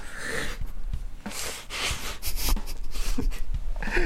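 Several sharp, breathy nasal bursts with snorts and quick gasping intakes, like a person sneezing and sniffling. The noisy bursts repeat irregularly over a few seconds, with no talking.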